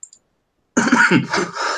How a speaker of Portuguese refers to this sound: eu vou dar uma tossidinha, você pode continuar aí, peraí.